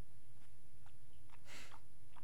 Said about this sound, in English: Oh, listen to those puppy kisses.